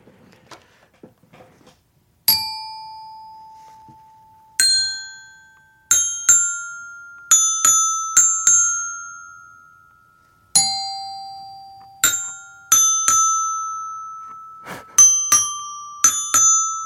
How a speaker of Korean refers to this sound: 아, 요즘 제 실로폰 연주가 물이 올라서요. 고급 실로폰을 사비로 구입해야 하나 고민 중인데요. 아, 오늘은 제 연주를 듣고서 노래 가사를 맞춰주셔야 합니다.